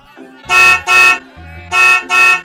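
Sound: many car horns honking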